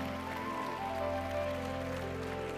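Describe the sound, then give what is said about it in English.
A church audience claps and applauds, a dense, steady wash of many hands that holds at an even loudness throughout, with sustained musical tones humming underneath. “Give Jesus Christ the greatest hand clap of the day.”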